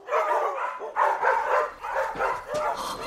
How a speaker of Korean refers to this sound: 투명한 아크릴 문이 붙은 사물함처럼 생긴 수영 공간 곳곳에 개들이 들어가 있었는데 희은이 문을 들어서자마자 그 개들이 일제히 소리 높여 짖기 시작했다. 몸속 깊은 곳에서부터 올라오는 허공을 쥐어뜯고 차내는 듯한 소리였다.